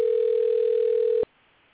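A single steady telephone ringback tone sounds clearly for just over a second, then cuts off abruptly into near silence, as if a call is ringing through unanswered.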